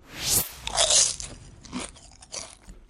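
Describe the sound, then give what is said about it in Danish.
Crunching and chewing of popcorn, several crisp bright bites in quick succession, loudest near the start, then softer munching fading out. “Så er der fodbold og popcorn.”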